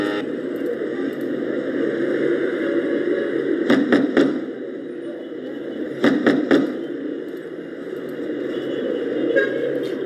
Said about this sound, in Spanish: Ya es tarde. ¿A qué hora llegará el repartidor? una motocicleta parquear delante de la puerta y pasos acercándose a la misma.